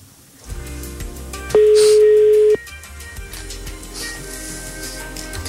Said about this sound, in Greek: Τρέχει να το πάρει τώρα. Μέχρι να το σηκώσει. Άντε καλέ το τηλέφωνο χτυπάει. Πού το έχει το κινητό.